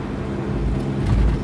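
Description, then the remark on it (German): A steady low rumble of road noise inside a car driving at up to 80, at times in very poor visibility, continuous and fairly loud, with a broad hiss on top and no voices. “Und ich komme so gut durch, trotzdem, dass ich hier maximal 80 fahre.”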